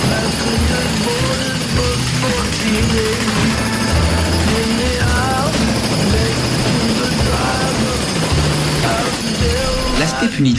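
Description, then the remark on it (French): A jackhammer pounds steadily and loudly, its dense mechanical rattle filling the whole scene alongside heavy engine noise, with faint voices calling out. “Après les chars venaient donc les tractopelles, après les obus, les marteaux-piqueurs.”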